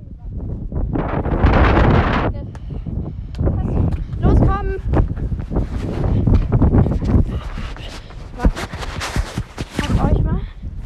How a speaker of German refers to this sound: Sorry für Windgeräusche.